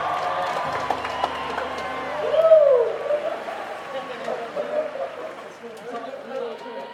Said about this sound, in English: Hey, they're already cheering.